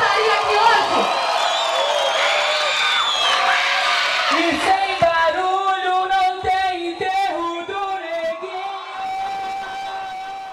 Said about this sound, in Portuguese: É uma salva de palmas pra vocês, porque vocês merecem!